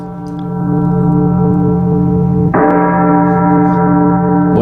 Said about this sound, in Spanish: una celebración que en sus orígenes incluía tradiciones como tocar las campanas de las iglesias por las almas del purgatorio.